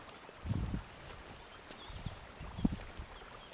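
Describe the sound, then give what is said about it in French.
Very cold, very clear spring water, said to come underground from the Vercors and emerging in a forest, flows quietly and steadily, with a soft gurgle running throughout and a couple of fuller splashing bursts near the start and again toward the end. No voices are heard. “Euh, c'est une vraiment très très claire. on m'a dit qu'elle venait du Vercors, euh, tout ce temps sous la terre, quoi, jusqu'ici, quoi.”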